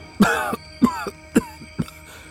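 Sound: old man coughing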